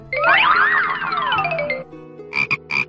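A little green frog croaks in a loud, drawn-out, warbling call that rises and falls in pitch, followed after a brief pause by a few shorter, rapid croaks.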